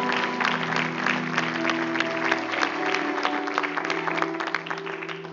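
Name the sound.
audience applauding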